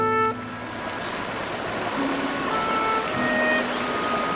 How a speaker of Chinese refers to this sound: 河水流得很湍急。